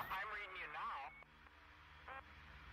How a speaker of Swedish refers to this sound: Samtidigt har du också ljudet från radion som dämpar eller dödar hennes röst lite.